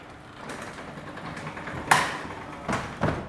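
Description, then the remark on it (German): A large roller gate closing: a steady, grinding mechanical rattle runs throughout, broken by a sharp metallic clank partway through and two more thuds just before the end. No voices. “Das große Rolltor schließt sich.”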